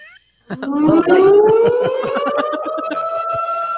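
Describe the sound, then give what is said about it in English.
After a brief quiet moment, a loud siren sound effect kicks in, its wail climbing slowly and steadily in pitch and then holding high, with quick rhythmic pulsing running underneath. “I, where's my sirens?”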